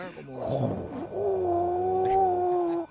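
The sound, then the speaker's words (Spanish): A voice imitates the eerie, spooky first sound sent from Mars: a short breathy rumble, then a long, steady, whining drone held for almost two seconds, fairly loud. “y se escucha ya, y envió por primera vez el sonido y era como medio spooky.”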